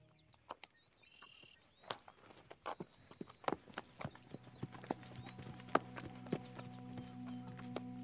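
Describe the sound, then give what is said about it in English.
Horse hooves clip-clop at a slow, steady walking pace, sharp knocks repeating over a quiet outdoor background with a faint steady hum, no voices. “The Pony Paddock, a gentle, calming place that an enchanting group of horses call home”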